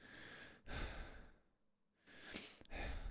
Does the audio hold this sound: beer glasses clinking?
no